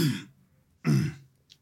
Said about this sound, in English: Clear your throat.